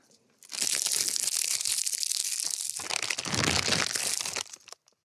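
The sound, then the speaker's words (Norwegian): Hands of the NMG editorial team rummage through a bowl of Twist candies, producing a dense, continuous crinkling and rustling of plastic wrappers for several seconds, loud and bright, ending with a brief rattle. “Her hørte du eh, NMG-redaksjonens gode forsøk på å rote i en tvistbolle.”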